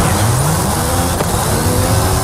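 An F355 car's old-school V8 engine revs high and loud throughout, its pitch climbing steadily in a strained, buzzing roar with a brief sharp blip about halfway through. No one speaks.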